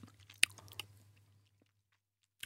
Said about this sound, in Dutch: Kijk, de stoom komt er inmiddels van af. Dan gaan we even een, een hapje nemen. Even testen. Zo.